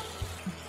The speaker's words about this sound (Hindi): पानी डाल देते हैं थोड़ा सा अब इसमें डाल देंगे चटनी और अब थोड़ा सा पानी दो कटोरी चावल है तो चार कटोरी पानी ज़रूर डालिए